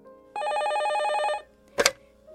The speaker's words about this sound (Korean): 집 전화가 울리길래 전화를 받았는데요.